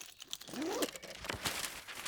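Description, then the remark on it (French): Soft crinkling and rustling of paper sheets being handled as sheets and pencils are taken out to calculate the energy released by nuclear fission, with brief crackly bursts, fairly quiet with no talking. “Ils sortent des feuilles et des crayons et se mettent à calculer l'énergie qui serait libérée par la fission.”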